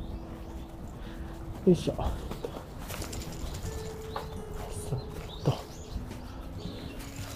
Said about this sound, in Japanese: まあね、ここもあの、木陰の道ですごい気持ちよくてですね、いい感じです。今鳥の声とかもね、聞こえてると思いますが、あんまり人がいないね、ところで。